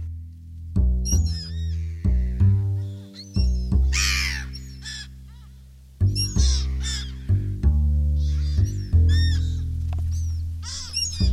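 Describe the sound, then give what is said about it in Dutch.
Seagulls call repeatedly as they fly overhead, the cries echoing through an inner courtyard: loud, harsh, wailing cries in quick bursts, overlapping, with no talking. “Meeuwen vliegen over. Uh, eh, extra schalmen door de binnentuin.”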